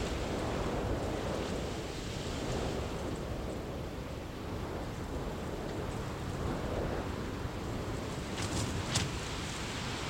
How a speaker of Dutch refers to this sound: Het is dus ook het geval met wind, wind verplaatst van de ene plek naar de andere plek. Maar je hoort het gewoon. Door je heen razen. Als een golf.